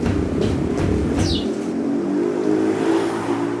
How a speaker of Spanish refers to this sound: El sonido común es el de los pasos de aquellos que tienen que madrugar, los pasos apurados y el sonido de las llantas que recorren el pavimento irregular.